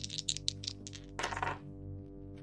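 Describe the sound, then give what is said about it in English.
Dice clatter in a quick run of small hard clicks, followed by a brief rattling tumble that settles, fairly faint over a low steady hum, as people gamble behind a door. “Sounds like dice.”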